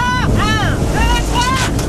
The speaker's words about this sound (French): Ils embarquent à bord d'un Zodiac noir et foncent à toute allure devancer le bateau.